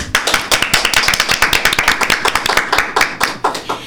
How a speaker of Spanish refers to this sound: Así es que un aplauso por favor